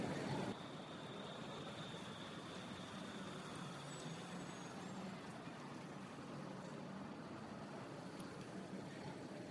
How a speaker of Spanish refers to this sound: vete ahora para la isleta esa que hay en el centro de la parada de, los tranvías donde confluyen todos